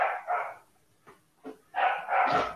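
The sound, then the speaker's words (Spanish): A dog barks repeatedly: two quick barks, a pair of softer short yips, then a louder run of barks near the end, with no one talking. “vamos a esperar que el perro”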